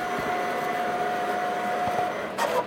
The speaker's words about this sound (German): So, jetzt fährt der Drucker, äh, der, der Plotter einmal nach links und nach rechts, erkennt die Größe, dann fährt er ein bisschen hin und her.